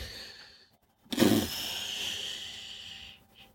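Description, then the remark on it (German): A single heavy, noisy exhale through the nose bursts out sharply, then trails off as a long breathy huff lasting about two seconds, with no talking. “Da schnauft er.”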